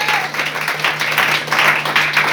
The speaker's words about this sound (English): Come on, clap hands for the Lord one more time.